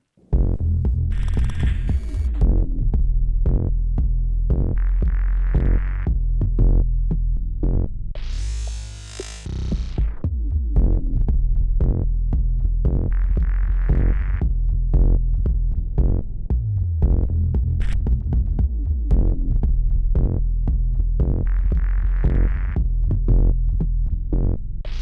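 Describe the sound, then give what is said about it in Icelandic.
Processed vibration recordings from tests of a music chair prototype: a loud, deep throbbing hum that pulses unevenly, with brief hissy bursts of higher noise rising above it now and then, and no talking. “Hér undir hafa hljómaðin og milli tilruna bútar sem að Kurt hefur meðhandla þannig að við heyrum þá.”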